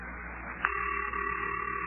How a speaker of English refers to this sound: Listen, Mayor Plumfront's number's ringing. Yeah, yeah, I hear it.